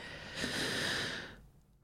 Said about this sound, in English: Oh, breathing out slowly, imagining my feet connected to her and all of the other creatures that dwell upon her. Well, that made me feel a little better.